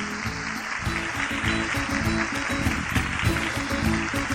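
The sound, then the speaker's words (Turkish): Steady, dense applause from a large group of children, loud and continuous, with excited young voices mixed into the clapping, given in thanks to their parents and other family elders. “Onları kocaman bir alkışlayalım bakalım.”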